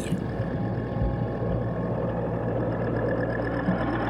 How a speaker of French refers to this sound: Pourquoi cochon À cause de sa forme arrondie et allongée et du grognement sourd produit par la torpille.